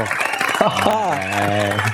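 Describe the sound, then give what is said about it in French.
A steady wash of studio-audience clapping at the opening of the show Les Sondiers runs throughout, with a loud sustained voice holding and bending a pitch over it, like a cheer or exclamation riding on the applause. “Et ce soir, je laisse les applaudissements un petit peu plus longtemps parce que, eh oui, ce soir, euh, c'est vraiment moi qui présente l'émission.”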